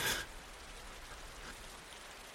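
Steady rain hisses down in a soft, even wash, with a brief louder splash of water at the very start before settling into a constant patter.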